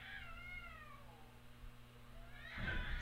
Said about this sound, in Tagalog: Mga pusa dito. Ang ingay.